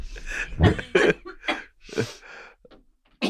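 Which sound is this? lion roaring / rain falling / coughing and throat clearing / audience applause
coughing and throat clearing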